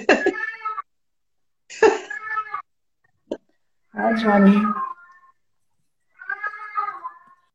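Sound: cat meowing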